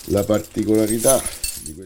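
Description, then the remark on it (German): A bunch of keys, including yellow-labelled keys used during a papal conclave to seal the doors leading from the Vatican Museums into the Sistine Chapel, jangles with a light metallic clinking, mostly beneath a man's voice talking steadily throughout. “Auch dafür, so erzählt …, ist alles vorbereitet und zeigt auf ganz bestimmte Schlüssel.”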